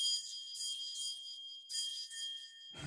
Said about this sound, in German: es klingelt.